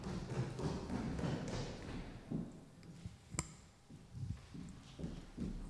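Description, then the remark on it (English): Rustling and muffled thumps from a microphone being picked up and handled, with a sharp tap or knock partway through and a few softer bumps after. “let me get the microphone.”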